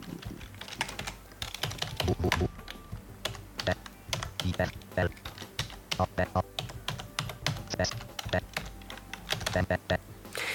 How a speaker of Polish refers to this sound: Jak słyszymy, pisze dość szybko i on już tak ma czasem problem z wyrobieniem się ze mną, synteza, ale te znaki się wpisują normalnie.